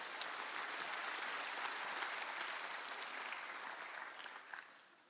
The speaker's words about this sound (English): Yeah, you can clap. It's a good thing.